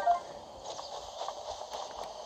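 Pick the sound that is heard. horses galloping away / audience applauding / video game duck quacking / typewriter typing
horses galloping away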